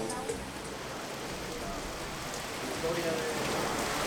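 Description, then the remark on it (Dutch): Heavy rain pours down during a thunderstorm with strong wind, a dense, steady hiss that fills the whole recording, with faint voices of family and children murmuring beneath the downpour. “Staan hier in, in, in de stromende regen.”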